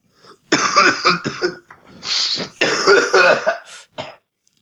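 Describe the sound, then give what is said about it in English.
A harsh coughing fit: several loud, raspy coughs in quick clusters with brief gasping breaths between them, trailing off into a final short cough. “I'm gonna I'm gonna smoke while you cough.”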